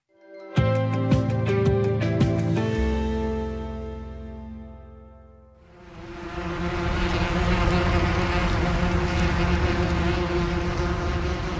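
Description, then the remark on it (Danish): A steady buzzing drone with a rich harmonic hum, dipping briefly before swelling into a denser, louder buzz like many wasps swarming together. “En velkendt og øh, stærkt irriterende lyd, som de fleste kan ikke øh, genkende til, det er lyden af vepse.”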